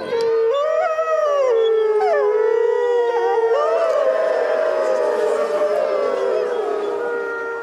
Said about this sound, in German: Ähm, wir können aber mal kurz in eine Aufzeichnung reinhören. Schon ein wirklich nettes Schauspiel, wenn hunderte Menschen und ein Rudel Wölfe sich gegenseitig anheulen.